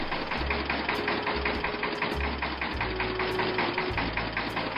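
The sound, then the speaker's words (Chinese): A tractor engine runs steadily, its loud, rough chugging pulsing in a fast, even rhythm over a low rumble for the whole stretch, with no voices. “等了很久很久，拖拉机还在叫。”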